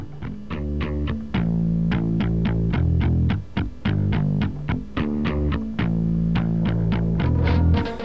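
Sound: electric guitar riff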